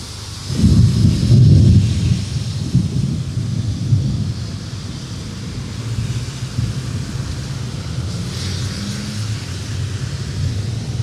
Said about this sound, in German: Es riecht nach Petrichor. Hm. Und nach Kuhscheiße. Aber hauptsächlich riecht es nach Petrichor. Ah. Regen. Nice.